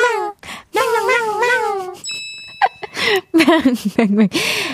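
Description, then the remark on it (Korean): A series of drawn-out, wavering cat meows, apparently imitated by a human voice, repeats several times, with a brief bright chime-like tone partway through. “멍 아니고 냥이었습니다.”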